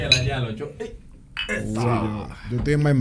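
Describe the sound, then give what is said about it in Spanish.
A quick clink of glasses touching in a toast rings out near the start at a Christmas get-together, with several voices talking and calling out "Salud" cheerfully over and after it. “Podemos chocar los vasos.”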